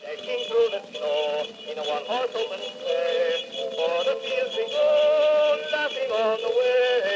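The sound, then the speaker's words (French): A very old, thin-sounding recording, made on 30 October 1889, of a voice singing a Christmas song, muffled and narrow, with constant hiss and crackle beneath the steady melody. “Écoutez, l'enregistrement est d'époque.”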